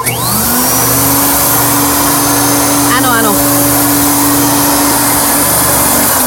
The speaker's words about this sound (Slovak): To je prosím pekne vysávač a teda vždy, keď som prišla domov, tak buď sa už vysávalo, alebo teda mala som ho pripravený a muselo sa ísť vysávať a samozrejme prišlo to mne.